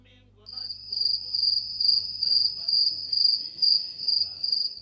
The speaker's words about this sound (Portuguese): Você sabe que vai ficar esse silêncio aí, né, cara? Esse silêncio vai ficar aí. Foi o grilo.